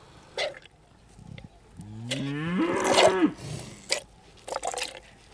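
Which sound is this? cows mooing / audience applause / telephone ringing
cows mooing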